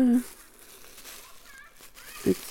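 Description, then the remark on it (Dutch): Crinkling of a small plastic bag holding seeds harvested the previous year, an uneven rustle that continues throughout, with brief vocal sounds near the start and end. “En ik heb hier een, eh, eh, ja, die heb ik vorig jaar geoogst ergens van en in een plastic zakje gedaan.”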